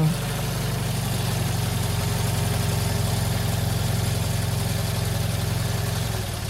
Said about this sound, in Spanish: Viene un coche.